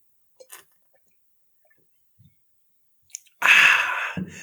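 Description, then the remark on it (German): A few faint clicks and taps, then a sudden loud, fizzy hiss lasting about a second, as a small Spezi soft drink is opened and poured for drinking. No one speaks. “Ich muss erstmal hier so eine kleine Spezi mir schnabulieren.”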